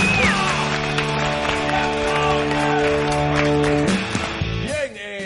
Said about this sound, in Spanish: Un gran aplauso para este.